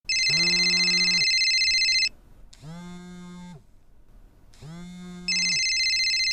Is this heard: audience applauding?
no